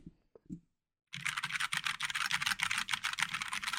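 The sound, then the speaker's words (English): Rapid, steady clacking of a backlit mechanical keyboard being typed on, crisp bright key clicks in a dense rhythm after a second of near silence with a few soft handling bumps. “This is the ASMR podcast so what's what's so cool about a mechanical keyboard?”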